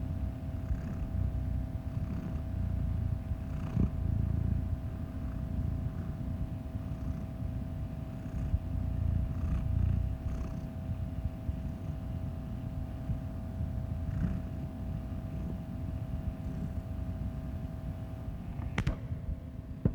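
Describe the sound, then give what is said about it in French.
A cat with entirely black fur purring steadily for the whole stretch, a low rumbling drone that swells and eases in slow rhythmic waves with each breath, with a faint click near the end. “il a le pelage euh, entièrement noir et euh, il dort toute la journée dans les, au fond du placard ou dans des endroits euh, sombres.”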